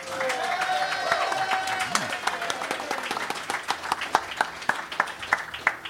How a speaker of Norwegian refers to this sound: Da kjenner dere konseptet, og kanskje kjenner dere eh, gjestene mine òg. Stor applaus til